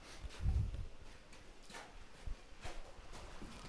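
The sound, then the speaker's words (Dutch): Footsteps thud across a small wooden footbridge over water, a babbling brook, in a slow, uneven rhythm, each step a soft hollow knock against quiet outdoor background noise, no talking. “We lopen nu over een houten bruggetje, over eh, ja, wat water, een konkelend beekje.”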